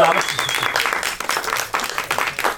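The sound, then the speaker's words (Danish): A burst of clapping from an audience answering whether they know the speakers, dense and steady for a couple of seconds, with a voice audible underneath. “Så må jeg bare klappe.”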